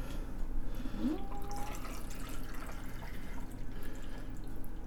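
A freshly shaken, slightly effervescent single cocktail pours steadily into a glass for several seconds, a soft continuous trickle with faint dripping, fairly quiet, with no one speaking.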